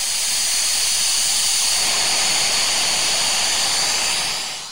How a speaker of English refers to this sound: So why do I want these background noises? Uh, just to block out construction noise, coworkers, snoring partners, you know, that kind of thing. And there's even just white noise.